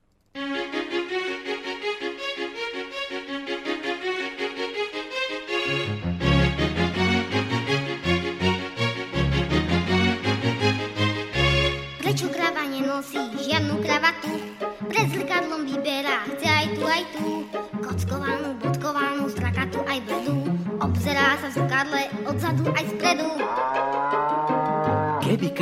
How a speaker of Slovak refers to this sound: tak pustím jeden z najlepších hororových soundtrackov